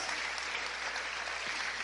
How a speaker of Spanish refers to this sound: Séllalo con un aplauso al Señor. Gloria a Dios.